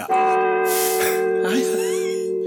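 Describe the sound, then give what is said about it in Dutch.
A slowed-down church bell recording from a sound library is played at double speed, a bright sustained metallic tone with steady overtones humming throughout, while brief breathy noises and voices briefly cut across it. “Klinkt al als een kerkklok.”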